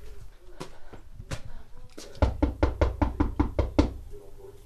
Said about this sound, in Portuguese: Há ruelas entre as casas, é por elas que entro à procura de alguém. Bato a uma porta, bato a outra e a mais outra.